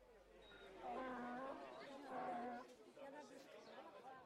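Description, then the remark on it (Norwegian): A busy marketplace in Egypt hums with overlapping crowd chatter, many voices talking at once at a steady, moderately loud level with no single speaker standing out. “Det er så mange mennesker overalt.”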